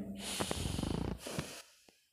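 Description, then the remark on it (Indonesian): A long, deep breath drawn in sharply through the nose, loud, with a raspy fluttering sniff quality before it tapers off into quiet. “dan selalu ala nafasil amik tarik napas sedalam-dalamnya”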